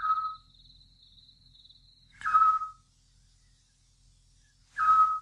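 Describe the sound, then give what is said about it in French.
A Eurasian scops owl gives short, pure, mid-pitched whistled notes spaced evenly a couple of seconds apart, three in all, with a faint thin high insect-like tone early on. “Le petit duc.”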